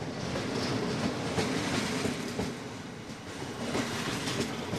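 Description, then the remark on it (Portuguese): A passenger train bound for Kyiv, Ukraine, rolls steadily along the rails with a dense, continuous rumble and faint rhythmic clacks of wheels over track joints, fairly loud throughout, with no voices. “O comboio sai sempre atrasado.”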